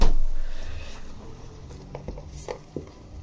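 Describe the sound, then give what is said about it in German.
A roux (Mehlschwitze) being stirred in a bowl as hot stock is poured in: a steady, soft scraping and swishing with a few sharper clicks of the utensil against the bowl toward the end, and no talking. “Und wenn ihr den heißen Fong da rein schüttet, rühren, rühren, rühren, rühren.”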